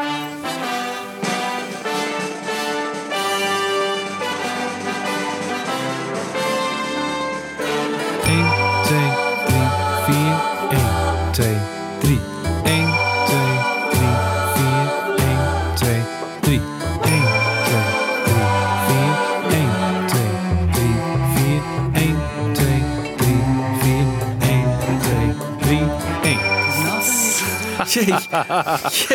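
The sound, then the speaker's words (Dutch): A small bell chimes on the strong first beats of a dense, loud music intro, its bright ring repeating at regular intervals once a heavy bass line enters. “Dus ook hier hoor je weer een belletje op de belangrijke eerste tellen.”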